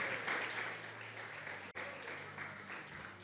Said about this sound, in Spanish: Eh, Dele fuerte un aplauso al Señor.